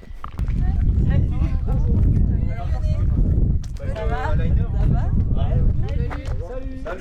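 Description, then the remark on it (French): Steady wind buffets the microphone with a heavy low rumble throughout, while faint voices of people chatting outdoors come and go underneath, on a town square where people wait for pizzas from a pizza truck and have an apéritif. “Alors, il y a du vent et du monde qui profite de l'attente des pizzas pour prendre l'apéro”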